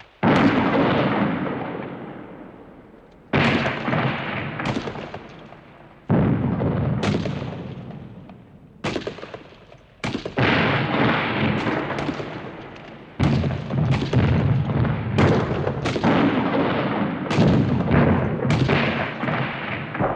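Heavy, booming gunfire and artillery blasts from an electronic sound composition made of weapon sounds tracing the wars of the 20th century, erupting in repeated bursts, each sharp onset followed by a rumbling decay, layered densely and loudly with no voices present.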